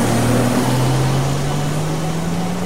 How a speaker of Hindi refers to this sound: अर्पिता ने गाड़ी की स्पीड बढ़ाई